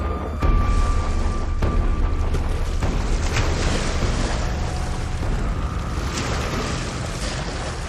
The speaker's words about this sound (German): Der Pazifische Ozean bei Santa Barbara in Kalifornien.